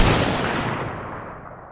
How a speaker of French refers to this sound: le révérend lève alors la main pour prendre à nouveau le dessus sur l'enchère, quand soudain, une détonation brutale retentit.